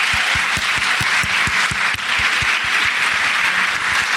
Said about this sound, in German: Ein kleiner Applaus. Ein Mikro, ein Applaus.